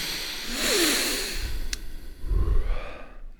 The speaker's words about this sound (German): Wir lassen jetzt nochmal ein bisschen Ruhe einkehren. Atmen nochmal tief durch.